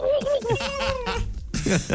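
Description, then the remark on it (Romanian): A person's voice imitates a turkey gobble: a rapid, warbling, throaty burst of sound, fairly loud, pausing briefly before another wobbling call. “ce asta ce e? curcan, e curcan.”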